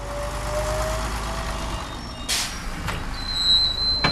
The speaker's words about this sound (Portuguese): Eh, Deixamos agora o aeroporto, mas por que meio de transporte devemos optar para fazer os 11 quilómetros que nos separam do centro da cidade? Vamos experimentar o autocarro.